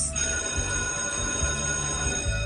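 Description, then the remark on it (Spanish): A school bell rings steadily and without pause for the whole stretch at the end of class, signaling break time; a bright metallic clangor with a sustained, buzzing ring and no voices over it. “¡Ay, son el timbre! ¡A descanso!”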